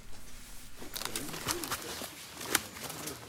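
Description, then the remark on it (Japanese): Outdoor jungle ambience at a wild coffee grove on Rota, with birds cooing and calling over a steady background hiss, plus a few sharp rustling or snapping sounds; no one speaks. “ロタのその群生地はどんな場所なのかその音声がありますので”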